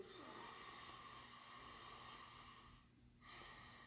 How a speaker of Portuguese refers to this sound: Porque quando a gente fala do uso aromático, ele vem da respiração. Então, lembra o que eu falei. É, respirar profundamente.